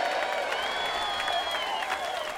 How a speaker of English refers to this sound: At that, the loudest cheer of the day went up.